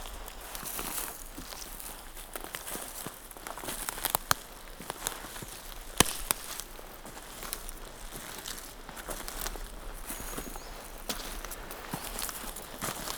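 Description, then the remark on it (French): Footsteps crunch steadily through dry leaves and dry wood, a continuous crisp crackling with a few sharper snaps, moderately loud, with no voices. “Euh, le craquement des feuilles du bois sec. Ça croustille.”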